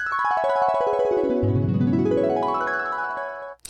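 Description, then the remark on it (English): An electronic chime rings out alone, its bright tone gliding steadily downward and then sweeping back up over a few seconds before cutting off with a small click. “It's a new year, and I got new chimes, y'all. They sound so good.”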